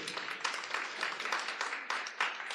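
A crowd applauds steadily, dense overlapping hand claps forming a continuous crackling wash that stays fairly even for a few seconds with small swells. No one speaks over it.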